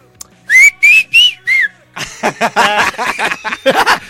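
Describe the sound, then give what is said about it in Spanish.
Someone whistles a short, clear four-note signal tune, then bursts of snickering laughter follow right after. “Y yo estoy chiflando, güey.”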